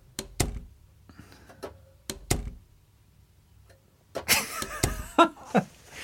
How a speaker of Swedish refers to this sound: Men är det en dörr? Ja, det är en dörr. Det är en dörr. Ja, precis. Det är bra. Det är någon som går ner för en trappa upp.